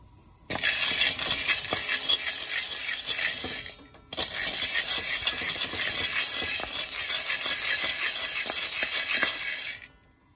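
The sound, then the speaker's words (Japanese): Raw dried beans rattle loudly and continuously as they are roasted in a pot for Setsubun bean-throwing, a dense, bright clatter of countless small hits, with a brief pause around the middle before the rattling resumes. “ガラガラガラガラと盛大な音。”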